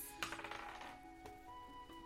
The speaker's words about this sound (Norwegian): Oi, oi, oi. Eh, det ble en tier på terningen, men performance, så har jeg ekspertise. Så det ble 17. 17.